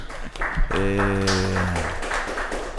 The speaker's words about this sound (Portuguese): Aê, aplausos. Aê.